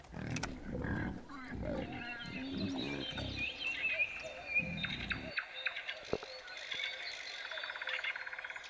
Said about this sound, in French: Mais c'est un cochon C'est un porcelet mais ils sont en train de les tuer Mais c'est horrible quand même Mais ils vont les tuer